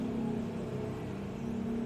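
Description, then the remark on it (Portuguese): A motorcycle engine drones with a steady, buzzing low hum that holds an even loudness throughout, with no speech over it. “olha a moto.”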